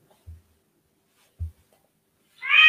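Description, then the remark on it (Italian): Two soft low thumps, then a loud pet cat meow with a bright, harmonic tone that rises at the end and is cut off mid-call, during a live broadcast. No one speaks. “c'è il mio gatto che rompe i coglioni, eh, perdonate.”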